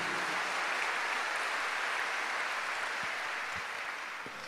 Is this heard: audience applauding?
yes